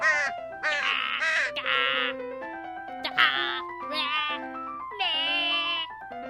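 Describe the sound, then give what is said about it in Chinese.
A string of nasal, wavering caws from a crow named Jim, who cannot keep up with the rhythm while the other birds sing in class; about seven calls rising and falling in pitch, loud and voice-like, repeated over steady background music with no talking. “当大家都认真在唱歌的同时，只有吉姆跟不上大家的节奏，而且嘎嘎嘎的一直叫着。”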